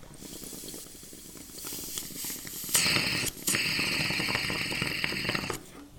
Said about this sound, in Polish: Patrz jak chlupie tako. Mocno gazowana. No taką robią teraz.